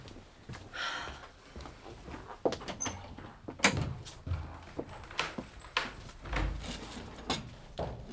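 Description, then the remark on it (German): A door is handled: a few sharp knocks and clunks as a visitor knocks, then the rattle and creak of it being opened to let them in, with shuffling movement. “Ich weiß natürlich, warum du klopfst.”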